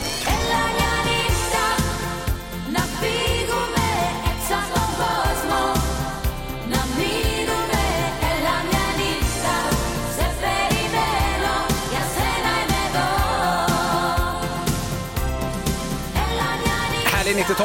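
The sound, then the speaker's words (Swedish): An upbeat 1990s Greek pop schlager song, an old hit that has made a comeback and sits at number 32 on the Greek chart, plays loud and continuous, with a steady driving beat and dense layered instruments filling the whole stretch without pause. “hittar vi en gammal 90-talsschlager faktiskt som gjort comeback av oklar anledning.”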